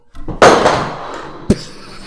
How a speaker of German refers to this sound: hat gerade alles umgeschmissen bei sich.